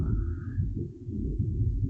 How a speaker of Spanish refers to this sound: Y está tronando, bendito sea Dios porque nos va a llover.